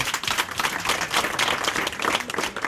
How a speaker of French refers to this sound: On peut les applaudir très fort, merci.